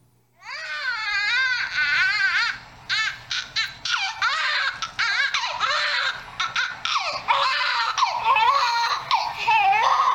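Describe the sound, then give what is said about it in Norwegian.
A newborn baby girl in a hospital room cries loudly and without pause, high-pitched wails broken into quick, choppy bursts and catches of breath across the whole stretch, with no one talking over it. “Now, look, we're in a hospital room she's uh, sticky and she's baby and all that stuff, and she's in the middle of crying.”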